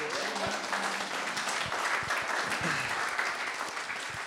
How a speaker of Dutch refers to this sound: Welkom hier in het Huis Utrecht. Welkom bij onze 200ste podcast. Nou, dan mag nog een eh, applaus.